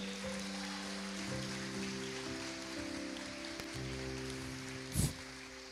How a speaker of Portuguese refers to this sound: Amém. Pode aplaudir mesmo.